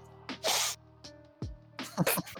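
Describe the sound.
Quiet, wet sniffling as someone on a bus draws a runny nose inward in a few short, hissy sniffs, one slightly longer, then a quick cluster at the end. No talking.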